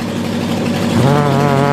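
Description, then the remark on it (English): An aircraft engine idles at 1600 RPM after startup with a steady, loud droning hum and a rough mechanical rumble. Partway through, its tone settles slightly lower and becomes more evenly pulsing. “this is just the idle. You know, we're only at 1600 RPM here.”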